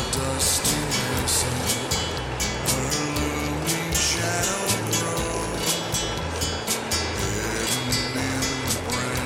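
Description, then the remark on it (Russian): A train, the Hunt Express, arrives with a loud, steady mechanical rumble and rhythmic clattering bursts, its sustained horn blaring over it throughout. “Вот прибывает наш поезд. Слышите гудок?”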